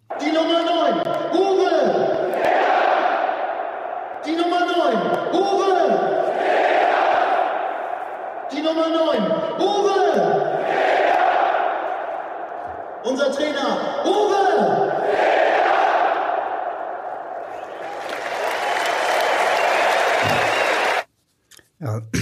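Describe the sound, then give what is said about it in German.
A packed stadium crowd roars in a call-and-response chant during the starting lineup on a Sunday before the match against Rostock, the stadium announcer reading out every name, even the coach's, as Uwe Seeler, alternating with thunderous shouted replies in a steady repeating rhythm, swelling into loud cheering at the end. “Am äh, Sonntag gab es ja viele besondere Momente im Stadion, unter anderem bei der Startaufstellung ähm, als alle Uwe Seeler waren.”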